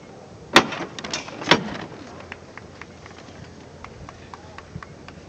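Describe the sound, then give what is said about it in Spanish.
Two loud, sharp metallic knocks from a llamador on a procession float, heard at the junction of Arquitecto Verges and Paseo de la Estación, about a second apart, ringing briefly before fading into soft crowd murmur and scattered faint clicks. “Vamos a escuchar los toques de llamador. Fuerte, ¿eh?”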